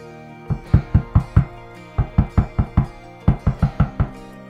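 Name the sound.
knocking on a door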